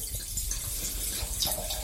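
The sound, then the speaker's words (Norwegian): Wine pours steadily into a glass, a continuous gurgling, splashing stream of liquid with a bright ring as the glass fills, moderately loud and without any talking. “Jeg heller oppi til deg godt, jeg. Jeg syns du fortjente litt ekstra glass i dag.”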